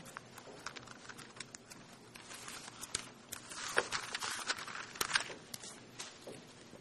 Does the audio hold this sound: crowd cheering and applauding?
no